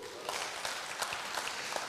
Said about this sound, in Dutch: Applaus voor jezelf.